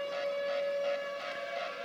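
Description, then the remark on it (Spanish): A steady alarm siren wails on one sustained tone with bright harmonics, holding at an even, fairly loud level for the whole stretch with no voices over it. “Es que suena la alarma, hermano.”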